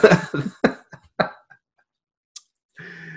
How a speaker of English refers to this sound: Man, we'll just start coughing. He may get the hell away from you.